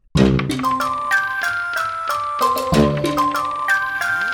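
A short, upbeat musical jingle plays loudly on its own, with bright chiming melody notes over a bassline, moving along at a steady, bouncy tempo.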